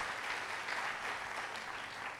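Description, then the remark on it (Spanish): A crowd claps together in a sustained, dense burst of applause for the Lord during a church sermon, steady and full throughout with no pauses and no voices standing out. “Dale un aplauso fuerte al Señor y nos despertamos.”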